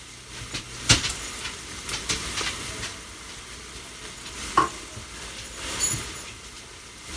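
A spoon scrapes and stirs through a thick mixture of masa flour, spice and water in a bowl, with soft rasping strokes and a few sharper clinks against the side, with no talking.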